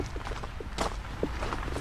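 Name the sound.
footsteps walking outdoors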